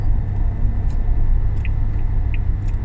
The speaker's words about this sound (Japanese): 下道じゃねえしなうんロードノイズしかもジムニーやし終わっとる なんかエンジン音もうるさいしな